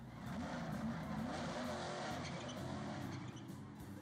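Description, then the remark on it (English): A race car engine roars and revs continuously while tires skid and squeal, loud, with the pitch of the motor rising and falling throughout. “race car driver, maybe.”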